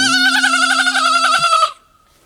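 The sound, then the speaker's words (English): A single loud, drawn-out sheep bleat with a shaky, quavering tone, lasting well over a second before cutting off abruptly, with a faint steady low hum beneath it. “Oh right, okay, and it's got there's a sheep bit in there as well.”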